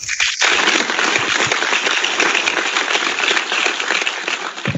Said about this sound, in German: Meine hm. Damen und Herren, wir spielen an dieser Stelle Applaus ein.